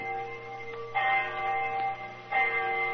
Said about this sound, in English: Our rendezvous took place right on the dot. I remember the hour was striking.